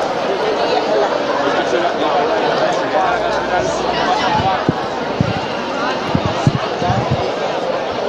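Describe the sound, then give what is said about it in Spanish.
A dense murmur of a large crowd of people waiting in Plaza Santa María fills the open square, steady and continuous, with scattered sharp thumps and footsteps popping out near the end. “bueno pues ya podéis escuchar aquí el ambiente, me he venido a hacer amigos, me parece porque estoy aquí en la Plaza Santa María para palpar un poquito el ambiente de ya la gran cantidad de gente que está esperando a esta hora”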